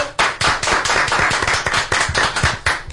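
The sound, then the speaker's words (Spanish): Dense studio applause from a small group in the Sin Filtro booth, welcoming two guests who made a documentary; a steady patter of overlapping claps that starts abruptly and stays loud and even for about three seconds, with no voices. “Los recibimos con un aplauso.”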